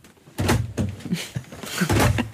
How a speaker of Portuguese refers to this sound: Que, que, barulho é que a cadeira estava a fazer?